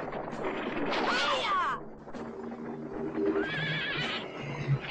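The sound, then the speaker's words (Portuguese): A horse pulling a cart whinnies loudly with a shrill, wavering cry, then neighs again more briefly as it kicks a woman, amid a dense rumbling background with thudding hoofbeats. “o cavalo deu um coice nela.”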